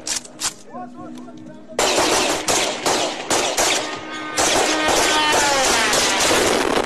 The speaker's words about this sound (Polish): W serwisie The Kiev Independent opublikowano nagranie ze strącenia takiego drona przez ostrzeliwujących go z karabinów automatycznych policjantów.